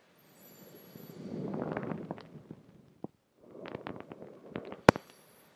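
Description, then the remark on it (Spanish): A single normal breath: a soft, airy inhale of about two seconds, a brief pause, then a shorter exhale, with faint mouth clicks scattered through and no one talking. “Nuevamente, solo para que quede claro, una respiración normal es así.”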